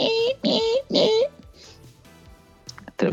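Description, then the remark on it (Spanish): A voice imitates the grinding, drill-like whir of a Sega console's disc reader in three loud, buzzing bursts, then falls quiet before a brief vocal sound at the end. “el, ruido que hacía era el lector, que era, como una, una taladradora.”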